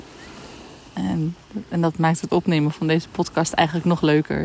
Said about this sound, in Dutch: Maar momenteel ben ik dus in Thailand en ik lig de Hero heerlijk in het zonnetje, in het ochtendzonnetje op het strand. En je hoort waarschijnlijk de golven hier ook bij mij op de achtergrond.